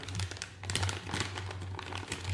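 Metal coins from the board game Scythe clink and rattle as they're handled, a steady run of sharp little taps and jingles over a low background hum, with no talking.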